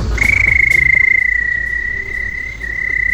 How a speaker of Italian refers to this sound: Perché il grillo. È il grillo lui. Cioè. Ma che in campagna questo come funziona?